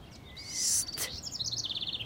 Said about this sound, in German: Hörst du sie? Was? Die Vögel. Na klar höre ich die. Das ist Musik.